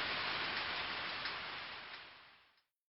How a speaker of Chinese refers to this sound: 我怕的关掉电脑，钻进被窝，睁着眼，躺在床上，听着暴风雨的声音。直到天亮。